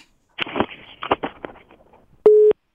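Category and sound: signal or alarm, telephone busy tone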